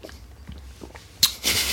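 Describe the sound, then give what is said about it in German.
Someone drinks a glass of water: a few soft sips and swallowing clicks, then a sharp intake of breath and a longer, airy exhale at the end. “Ich trinke jetzt mal das Glas Wasser hier.”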